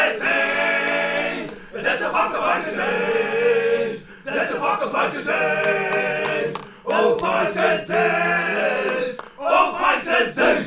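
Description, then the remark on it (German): A loud crowd of male hooligans chanting and shouting in rhythmic bursts, with brief pauses between surging, rowdy, forceful calls. “Sind die Hooligans jetzt eigentlich da?”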